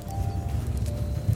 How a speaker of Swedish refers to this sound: På avstånd hörs ett dovt muller som kommer allt närmare. Det är ljudet av hundratals renar som jobbar sig fram genom den djupa snön.